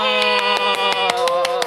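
Quick, evenly spaced hand claps celebrating a birthday on April 15, about nine or ten sharp claps in a steady rhythm, ringing out over a continuous sustained musical tone.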